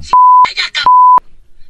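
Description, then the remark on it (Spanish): Two loud, steady censor bleeps, each about a third of a second, cover spoken swear words, with a short burst of speech audible between them and a quiet tail afterward. “Tiene malas palabras, así que ahí van los Hesler, los bips Ahí les va.”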